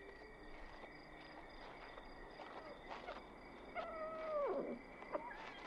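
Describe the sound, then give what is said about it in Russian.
A single drawn-out cat meow slides downward in pitch, heard fairly faintly against a steady background drone with a few soft clicks and rustles, and no one speaking. “Почему эта кошка уверена, что я всегда ловлю рыбу именно для нее?”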